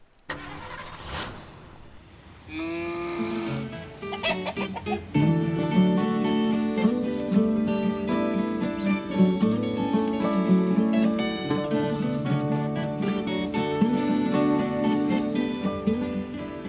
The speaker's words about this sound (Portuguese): Bom, tá bom. Então solta a vinheta aí.